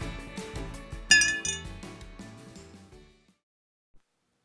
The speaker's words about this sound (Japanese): じゃ乾杯しよっか牛乳で乾杯